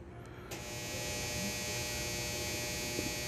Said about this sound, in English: And there goes that dryer again. Let's see if I can huh, I don't know why it's doing that, but it's doing it nonetheless. I'm not going to let it bother me